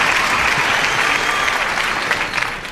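Sustained applause from a sizable audience, played in as a recording of a 1950s-style audience: a dense, steady wash of clapping that fills the whole stretch and eases off slightly at the end, with no talking.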